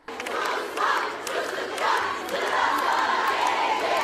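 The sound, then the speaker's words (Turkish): A large crowd of students in Çorum shouts and chants together, protesting after students were trapped in a Kredi ve Yurtlar Kurumu (KYK) elevator; a dense, continuous roar of raised voices that stays loud and steady throughout, with no single voice standing out. “Çorum'da da öğrenciler yine Kredi ve Yurtlar Kurumu'nun asansöründe mahsur kalınca yaşananları protesto etti.”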